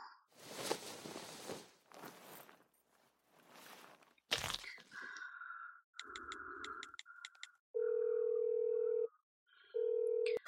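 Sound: telephone dialing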